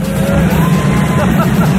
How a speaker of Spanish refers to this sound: Bueno, este auditorio eh, tiene mesas. Eh, tiene mesas, no sé si lo habéis notado, porque aquí la gente, aparte de aplaudir, le da la mesita. Mirad, mirad.